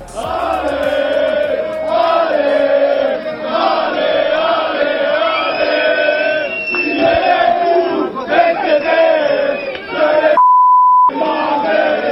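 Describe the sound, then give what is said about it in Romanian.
A large crowd at a liberal coalition rally chants loudly and rhythmically in unison, shouting insults at PSD members and even their mothers, with a stadium-like atmosphere. The roar is sustained throughout; near the end a steady electronic beep briefly cuts in before the chanting resumes. “lucrurile au scăpat un pic de sub controlul uh, liberal, de sub controlul coaliției și uh, au, au fost niște momente în care s-au uh, rostit niște înjurături la adresa celor de la PSD, chiar și a mamelor.”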